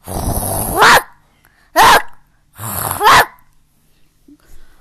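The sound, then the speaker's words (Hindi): A dog growls loudly in three rough, snarling bursts, the first long, the next short and sharp, the last drawn out, with brief silences between and no talking. The dog is crossing a bridge with bread in its mouth and growls at its own reflection in the water. “अचानक पुल से गुजरते वक्त उसने पानी में नीचे देखा उसने देखा कि एक और कुत्ता मुंह में रोटी दबाए हुए दिख रहा था उसे उसी की परछाई नजर आ रही थी लेकिन वह मूर्ख समझ नहीं पा रहा था कि ये वही है उसने गुर्राना शुरू कर दिया”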